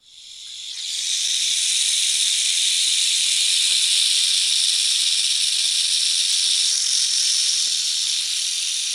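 An angry rattlesnake's rattle swells up within the first second into a loud, continuous dry buzz that holds steady and unbroken to the end, alone with no voices.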